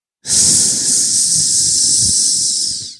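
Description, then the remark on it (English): A loud, steady snake hiss sustained for nearly three seconds, a breathy high-pitched rush that starts abruptly and fades slightly at the end. No one speaks. “It was the snake. That snake tricked me and I ate it.”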